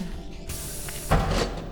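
A pneumatic automatic sliding door hisses shut with a steady airy whoosh, then closes with a heavier thump and rush of air near the end. Fairly loud, with no voices.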